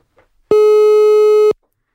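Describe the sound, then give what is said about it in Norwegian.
A single telephone ringing tone of an outgoing phone call, a steady one-second buzzy beep, sounds loud and clear against near silence, with no voices. “Vi ringer Jekstad.”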